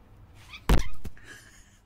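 A house cat, one of two pet cats brought to Latvia, lets out one short meow with a sharp onset, followed by a fainter, thinner trailing sound, as it is called to come inside. No one is talking.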